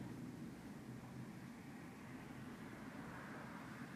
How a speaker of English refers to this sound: compared to the beginning of class, quite a bit more traffic.